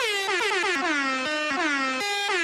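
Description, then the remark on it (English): A loud, brassy air horn sound effect, triggered from a soundboard, blares in a rapid series of stuttering blasts, its pitch sliding slightly between bursts, filling the whole moment with no voices. “Kid Midas on the air horn”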